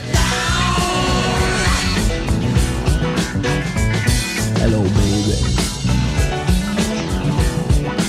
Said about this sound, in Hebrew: כאן אנחנו שומעים את השיר במהירות המקורית.